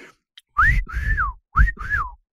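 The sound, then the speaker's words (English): A pet parrot whistles two loud phrases, each a pair of rising-then-falling notes separated by a short pause, with some low rumbling noise underneath and no talking. “Oh my gosh, he's whistling at you?”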